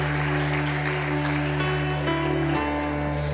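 An audience claps steadily and continuously for a few seconds, applauding Jesus, a dense wash of applause at even loudness, with a low electrical hum running underneath.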